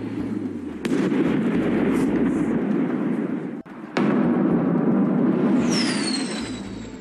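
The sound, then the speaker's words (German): Two sharp, heavy blasts about three seconds apart, each followed by a dense, sustained rumbling roar, with a high falling whine sweeping in near the end: heavy explosions in the centre of Kyiv, Ukraine, in the morning. “Im Zentrum der ukrainischen Hauptstadt Kiew ist es am Morgen zu schweren Explosionen gekommen.”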